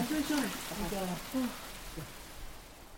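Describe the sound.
A steady hiss of heavy rain pours down on a sandy playground on a hot Saturday, hard enough to make the sand grains bounce, with several children's voices calling out over it in short bursts before the downpour carries on alone.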